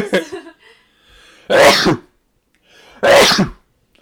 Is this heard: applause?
no